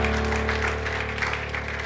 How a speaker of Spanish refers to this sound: ¿Cuántos dicen amén? Denle ese aplauso fuerte a Cristo.